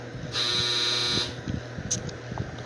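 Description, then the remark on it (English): A single loud electronic buzzer from a clothes dryer sounds for about a second, a harsh steady tone signaling its cycle is done, followed by faint room noise and soft clatter. “Yep, that's the dryer going off.”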